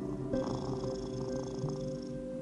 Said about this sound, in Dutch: Oh. Hoor je dat gesnor? Dat is mijn kat.